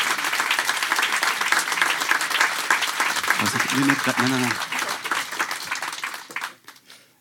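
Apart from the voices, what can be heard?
audience applause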